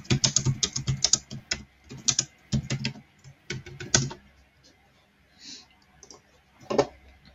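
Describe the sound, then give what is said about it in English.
Rapid keyboard typing of a message in bursts of quick clicks, with short pauses between flurries and a few isolated keystrokes near the end; no one speaks. “I'm just going to message Belinda saying, I think I'm actually live.”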